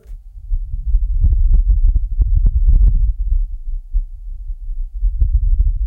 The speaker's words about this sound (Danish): Og den her rover har åbenbart haft en mikrofon med sig. Og der er nu kommet lyd fra Mars. Og er du klar? Det tror jeg, at du er, fordi det er ikke særlig spændende. Det her er den lyd, vi har fået tilbage.